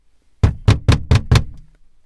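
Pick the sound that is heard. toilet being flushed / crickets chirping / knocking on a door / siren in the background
knocking on a door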